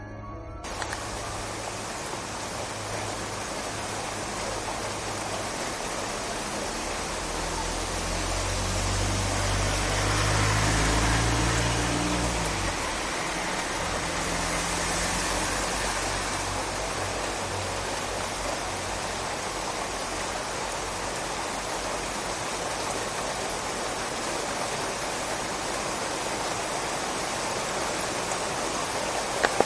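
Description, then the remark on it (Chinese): Heavy night rain of bean-sized drops pours down in a steady, dense hiss across the whole clip, swelling briefly with a deep low rumble partway through before settling back to a constant downpour. No one speaks. “还真下了，幸好我站在房檐底下，眼看大雨倾盆而下”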